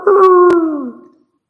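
A single rooster crow, one long harmonic call that slowly drops in pitch and fades out after about a second, heard alone with a faint click partway through.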